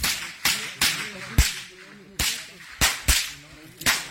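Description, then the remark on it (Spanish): Around eight sharp, real gunshots crack out at irregular intervals, fairly loud and abrupt, with faint voices underneath between the shots as people explain how they were being attacked. “Yo sé que eso suena a chinampina. Ah, no, señores, eran balazos.”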